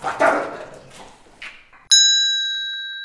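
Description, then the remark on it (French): Dogs squabbling, a rough burst of growls and yaps for a couple of seconds, cut off by a bright, sustained electronic ding that slowly fades. “les chiens sont en train de se maillotcher là.”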